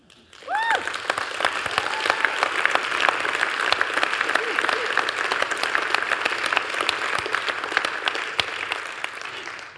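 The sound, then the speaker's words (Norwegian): A church audience bursts into sustained applause for a group who rehearsed to help lead worship, a dense crackle of many hands clapping at steady loudness for nearly ten seconds, with a brief voice or cheer at the start. “Så skulle jeg gi deg en skikkelig klapp.”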